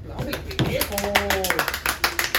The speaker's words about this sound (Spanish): Aplausos, Público, por favor. Público, eh, público ilustre.